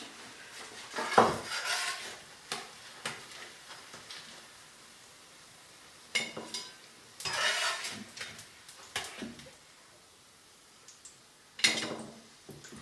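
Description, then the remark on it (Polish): Sizzling of a frying pan, broken by several bursts of metal scraping and clatter as fully fried potato pancakes are lifted out with a utensil. No one speaks. “Nasze placki są już właściwie upieczone, można je zdjąć.”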